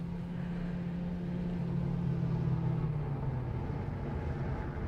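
car approaching and stopping

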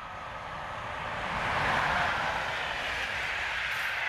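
train riding on rails

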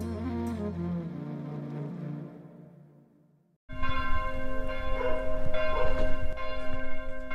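church bells ringing

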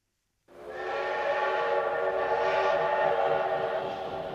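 train running with whistle

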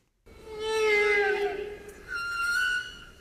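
humpback whale song

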